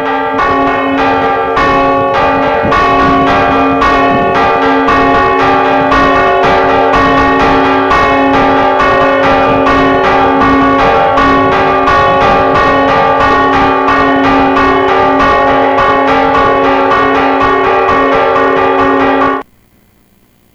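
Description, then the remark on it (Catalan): Two large church bells ring the toll used to dispel a storm, in rapid, steady repeated strokes for about twenty seconds, loud and dense with ringing overtones, then stop abruptly, with no voices. “és amb dos campanes, no amb una, són dos campanes grans, com, les, no, com la que tenim a Tren, la gran de Tren, i eh, bueno, ara sentiu, mm, durant 20 segons sentireu eh, com sona eh, el to, el so per desfer una tempesta.”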